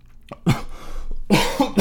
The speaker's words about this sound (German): oh Gott, warum ich gerade gehustet habe.